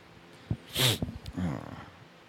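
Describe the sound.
A sharp nasal sniffle bursts out, followed by a short, breathy catch in the throat as a person tries not to sneeze into a microphone. Faint murmured voice sounds trail after it.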